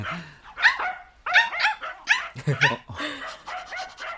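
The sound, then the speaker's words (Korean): A small abandoned dog barks and yips repeatedly in short, sharp bursts, with a few brief whimpery notes between barks, as people gather to watch it. “볼 때마다 골똘한 표정으로 바닥만 보시던데 웬일로 오늘은 강아지한테 눈길도 주시고?”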